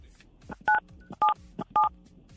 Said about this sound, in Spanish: Oye, entonces presionen en tu teléfono el 977.